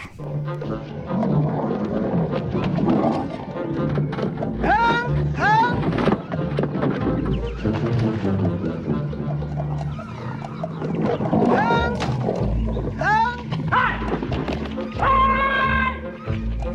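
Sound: lions roaring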